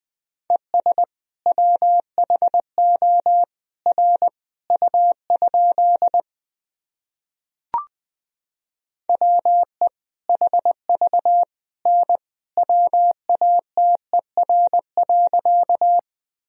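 Morse code practice sentences of common words and abbreviations, beeped out at 20 words per minute in a steady mid-pitched tone, brisk runs of dots and dashes forming two long passages separated by a pause with a single click, no voices.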